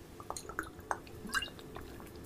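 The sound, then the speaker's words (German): Someone takes a sip of water, with a handful of small wet swallowing and slurping clicks spread irregularly over a couple of seconds, quiet, with no talking. “gönnt euch auch mal einen Schluck. Mache ich jetzt auch.”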